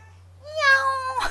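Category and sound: animal, cat meowing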